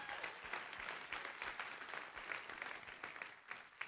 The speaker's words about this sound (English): Give her a great big hand, would you?